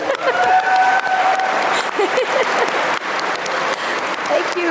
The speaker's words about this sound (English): This was your first experience GMing. Yeah. so I think any GM in the audience will know how intimidating that is. Round of applause for